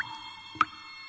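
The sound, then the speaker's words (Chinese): A single water drop plops down, a short, bright, ringing blip, heard over a steady, faint tonal hum that holds throughout. “话才刚说完，又有两颗水滴咚咚的落下来。”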